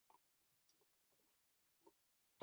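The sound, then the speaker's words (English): Quiet sipping of water: a few faint wet lip clicks and small slurps spread across a near-silent stretch, then an abrupt louder breathy burst right at the end. “So, quick sip of some high quality H2O.”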